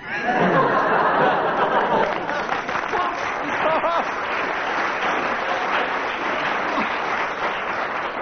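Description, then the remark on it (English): Sustained applause from an audience, a dense steady wash of clapping that stays loud for several seconds, with some laughter and scattered voices mixed in. “Why this applause?”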